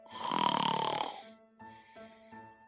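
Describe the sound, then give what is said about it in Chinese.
A storyteller imitates snoring to portray a sleeping wombat: one long, loud, raspy inhaled snore, followed by a softer, buzzing, pulsing exhale broken into three short humming bursts. “下午，我仍然是睡觉觉。”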